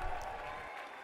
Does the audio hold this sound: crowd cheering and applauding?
yes